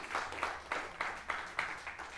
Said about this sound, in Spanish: un aplauso a los que están mirando a través de internet en esta mañana.